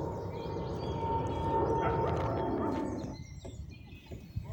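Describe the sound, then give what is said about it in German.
A broad, steady roar of aircraft in the sky over a forest fills the first three seconds, then drops away abruptly, leaving quieter background sound with faint bird chirps. “Das Tosen der Flugzeuge im Himmel kann man schlecht ignorieren.”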